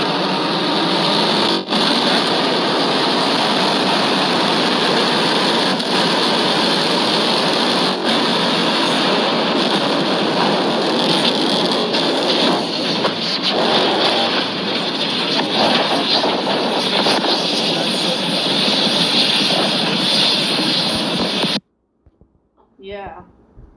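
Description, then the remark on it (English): A loud SpaceX rocket launch and explosion roar plays from a Twitter video through a speaker, a dense, steady rumbling blast that holds for about twenty seconds and then cuts off abruptly into near silence. “SpaceX explosion.”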